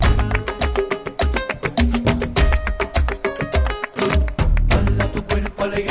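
An upbeat Spanish pop song plays loudly and up close, with a steady thumping beat, bright layered instruments and a brief dip in the mix before the groove returns.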